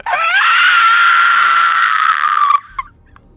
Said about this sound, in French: Puis une seconde après, le cri de Gulp s'éteint, puis la lamentation du fantôme laisse place à un cri plus violent.